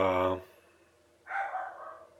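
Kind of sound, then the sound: animal, dog barking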